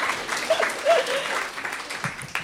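An audience applauds steadily for a couple of seconds to congratulate a guest, a dense patter of clapping hands with a few whoops or cheering voices rising briefly through it.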